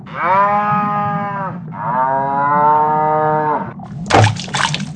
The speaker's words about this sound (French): On va mettre une vache.